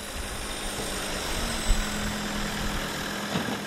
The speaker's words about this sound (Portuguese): Um trator que avança agora na direção de um dos fornos. É para tirarmos ali aquela terra, é para tirarmos o portão.